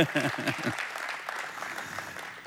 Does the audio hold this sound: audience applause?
yes